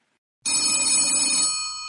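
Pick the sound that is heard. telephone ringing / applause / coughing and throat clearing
telephone ringing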